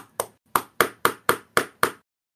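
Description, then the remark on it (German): Seven sharp knocks on a hard surface, not made with a pen, evenly spaced in a steady rhythm, fairly loud, each with a quick decay and no voices, knocked at constant intensity while testing an Nvidia RTX Voice noise filter. “Ich, ich klopfe ich klopf mal weiter mit der gleichen Intensität und hau den Filter rein.”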